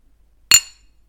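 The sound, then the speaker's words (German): A single bright glass clink from a candle jar struck to mimic a toast with glasses rings sharply and fades within a fraction of a second in otherwise quiet surroundings. “Okay, warte mal, ich habe hier noch, ich habe hier ein Kerzenglas stehen. Vielleicht kann ich damit so einen Anstoßen nachmachen.”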